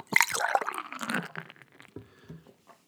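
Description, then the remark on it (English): Lone Star beer pours into a glass, a gurgling, splashy stream for about a second that settles into softer fizzing and a few small clinks. No one speaks. “uh, but someone put a six pack of this very beer that we're about to have. Let me pour a little.”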